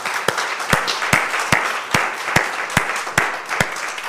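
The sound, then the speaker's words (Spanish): A church audience applauds the Lord together, strong unison claps landing on a steady beat about twice a second over a dense bed of scattered clapping, with no one speaking. “Un aplauso al Señor.”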